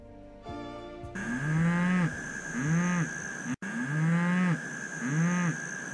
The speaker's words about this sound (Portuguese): Ai, desculpa, gente. Eu tô aqui na fazenda de um amigo e uma vaca perto da janela acabou de mugir. Mas ela se manifestou na hora certa, porque essa vaquinha que tá aqui do meu lado tem tudo a ver com as emissões de metano.